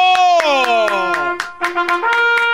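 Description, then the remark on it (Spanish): Steady rhythmic clapping from people coming in from the hallways, about four sharp claps per second, plays over a loud, sustained pitched tone that slides downward and then levels off. “Entra gente a aplaudirle de los pasillos, maestro.”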